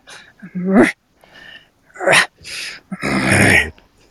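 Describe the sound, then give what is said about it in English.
A voice imitates the strained, growly effort grunts of a fairly hefty creature lifting something up. There are four loud bursts separated by short pauses, and the last one is longer and rougher, as if heaving something heavy. “We're going to just do a couple of effort sounds. So I just want you to have that creature like they're lifting something up.”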